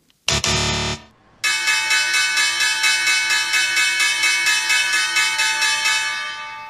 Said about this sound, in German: Das Geräusch kommt mir aber bekannt vor. Ich glaube, ich habe hier die Glocke äh, von der New York Stock Exchange gehört.